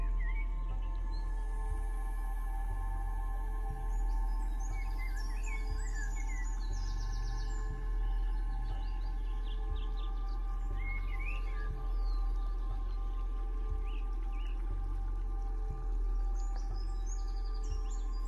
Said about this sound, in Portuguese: até que essa ave faz um forte som. Ela comunica a você que vai lhe dar uma bênção, que você é merecedor dessa bênção.